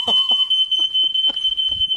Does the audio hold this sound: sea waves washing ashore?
no